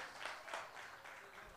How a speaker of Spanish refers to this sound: Dale un aplauso fuerte al Señor en esta mañana.